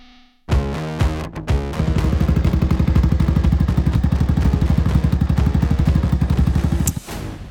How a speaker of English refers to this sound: Yeah. I said send your car sounds in. He didn't follow the instructions. He sent motorcycle sounds in. I'll take it though.